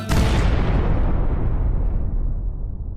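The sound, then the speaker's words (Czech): The meteorite that fell on the city of Chelyabinsk on 15 February 2013 exploding: one sudden, powerful boom followed by a long, heavy rumble that rolls on for several seconds, its hiss fading while the deep low end lingers. No voices. “15. února 2013 spadl v Čeliabinsku meteorit do města.”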